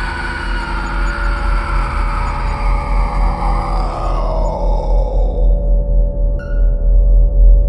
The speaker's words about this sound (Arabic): وولع النار في ورق الاشجار فجاه سمع صوت صريخ قوي جدا ومخيف ومرعب